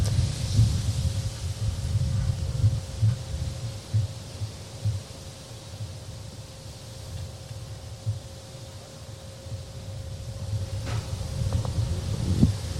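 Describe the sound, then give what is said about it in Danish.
Gusty wind buffets the microphone in low, rumbling bursts throughout, with a faint steady hum underneath and no voices. “Det er derfor, der ikke er lige noget lyd ud over en masse blæst.”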